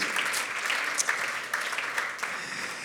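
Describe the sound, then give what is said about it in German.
An audience at a Christian gathering claps for God and for themselves, steadily for a few seconds, a dense, even wash of many hands with scattered sharper individual claps standing out, no voices over it. “Ich weiß nicht, könnt ihr ihm, euch selbst auch einen Applaus geben.”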